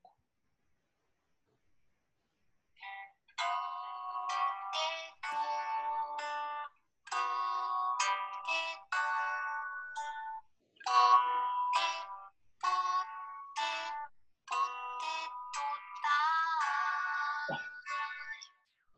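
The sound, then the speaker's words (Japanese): A bright, chiming melody plays from a mobile phone speaker, a run of short tonal notes in a steady, bouncy rhythm with brief pauses, clear, with no talking over it. “携帯電話の下から出るのかな、音。”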